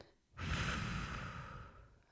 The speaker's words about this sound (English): So when you catch the thought, I want you to just breathe into it. Breathe in,